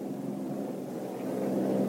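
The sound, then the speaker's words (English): A hydroplane racing boat's engine roars in a steady, throaty drone that swells slightly louder toward the end as the driver hits the accelerator to chase the second-place boat, with no voices over it. “Muncey is going to hit the accelerator and try to chase the second place boat”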